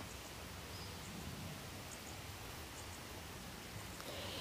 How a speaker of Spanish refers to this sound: desde las afueras de Medellín, al lado de una reserva mirando a las afueras de la ciudad con todos los tonos de verde. Por allá un río que se oye pasando es una belleza.